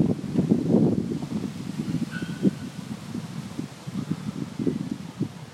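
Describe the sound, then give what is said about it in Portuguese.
Soft, continuous wind moves through a forest, with leaves rustling in gentle, uneven gusts. It stays fairly quiet, with no voices. “O som dos animais, o som do vento, barulhos.”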